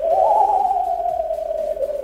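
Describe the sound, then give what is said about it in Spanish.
A ghost-themed Halloween doorbell tone: one long, eerie wailing note that wavers slightly and slowly sinks in pitch, holding steady loudness for about two seconds with no talking. “y por último, los fantasmas.”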